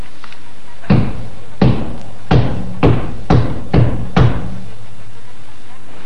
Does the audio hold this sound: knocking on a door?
yes